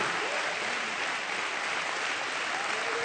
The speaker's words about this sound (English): I believe he's worthy of another hand clap of praise before, before we're seated.